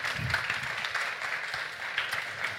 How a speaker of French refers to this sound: Merci de nous avoir écoutés et si vous voulez soutenir notre projet, merci beaucoup et applaudissez.